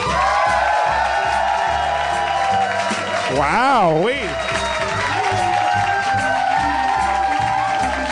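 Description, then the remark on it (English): A live audience at the Meltdown Theater in Nerd Melt Comics, Hollywood, California, claps and cheers steadily throughout, loud and dense, with a wavering whooping shout rising above the crowd midway while a voice talks over the noise. “We got a real crowd in our hands.”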